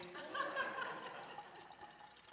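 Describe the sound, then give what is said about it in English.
A short, steady pour of unfiltered water splashing into a Brita filter pitcher, the stream gurgling brightly at first and then settling into a softer, even trickle. Fairly quiet. “And so uh, the object is you take water that is unfiltered and you begin to pour water into the Brita filter.”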